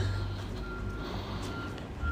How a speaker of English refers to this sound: As a bin lorry reverses towards me,